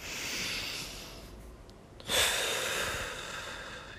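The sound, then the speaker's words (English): A dog takes slow, deep breaths: one long airy inhale, a brief pause, then a sharper snuffling breath that trails off. No one speaks. “take super deep breaths. He was probably onto more than us.”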